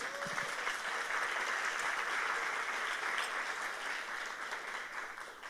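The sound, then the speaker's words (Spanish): A crowd applauds itself steadily for several seconds, a dense, continuous wash of many hands clapping at an even loudness that eases slightly toward the end. “A ver, démonos un aplauso.”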